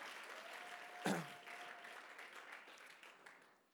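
An audience applauds steadily, a dense wash of many hands clapping at moderate volume, with a brief louder burst near the start and the clapping continuing evenly to the end.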